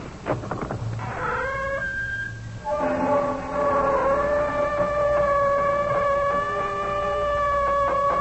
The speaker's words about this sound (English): The sound of our door is not unlike what greeted the ear of the famous archaeologist Howard Carter when he opened the door of Pharaoh Tutankhamen's tomb.